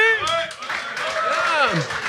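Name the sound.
audience clapping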